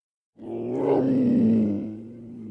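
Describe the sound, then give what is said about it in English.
A panther's deep, rumbling roar starts abruptly after a brief silence and holds for about two seconds, loud and low-pitched with a slight rise and fall, fading slightly at the end. “AT hikers often find themselves face to face with wildlife, but when the trail ran through the Dan River Gorge, they also had to contend with”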